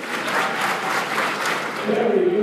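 An audience claps together on instruction in a steady, rhythmic beat, loud and dense, in counted rounds of three, four, five and six claps, with a voice starting to speak over the clapping near the end.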